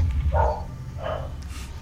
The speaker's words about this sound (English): yeah, I just uh, heard your uh, dog uh, woke up. Yeah, I'm afraid I've got them outside. It's cold out. I want to bring them in soon.